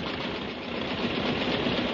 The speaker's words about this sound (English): Stop the car! Stop the car, will you? Switch something off, anything.